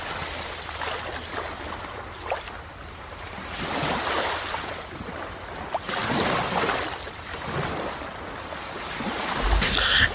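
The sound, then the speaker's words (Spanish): Ocean waves wash in and recede in slow, broad surges on a sunny shore, with a steady sea breeze hissing underneath. No voices, just continuous surf at moderate loudness swelling toward the end. “El sol resplandece y empieza a calentar nuestros pies, nuestro hombro, calienta nuestra piel, haciendo un contraste con la brisa del mar.”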